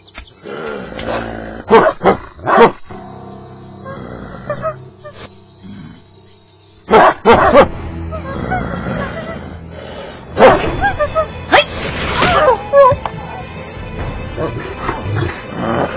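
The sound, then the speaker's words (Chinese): A large wolfdog, provoked into rage, barks and snarls angrily in repeated harsh, loud bursts with deep growling between them, some mixed with agitated voices. “坏了，大狼狗被激怒了。”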